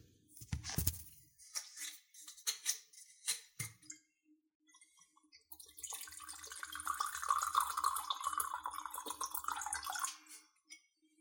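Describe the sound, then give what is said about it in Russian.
A few sharp clinks and knocks of a bottle and glass being handled as someone pours himself a drink, then a steady liquid pour with a bright splashing gurgle lasting about four seconds before it stops. “Сейчас повисит немного, налью себе.”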